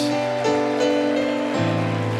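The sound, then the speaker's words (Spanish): A steady wash of audience applause, dense and crackling throughout, over sustained musical chords that change pitch a couple of times. “Demos un fuerte aplauso por estas personas.”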